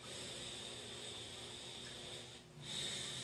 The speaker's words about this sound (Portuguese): Você vai se conectando com as energias, vai respirando profundamente.